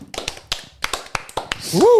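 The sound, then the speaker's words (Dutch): Sparse, uneven hand claps, about a dozen sharp smacks in under two seconds, like a small group clapping, ending in a loud rising-and-falling whoop. “Nou, ik vind even applaus.”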